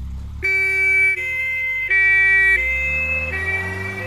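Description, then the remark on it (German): A loud ambulance siren alternates between two tones in steady, evenly spaced steps, with a low engine rumble underneath and no voices. “Seit dem Fieberkrampf unseres Sohnes höre ich diesen Sound nochmal ganz anders.”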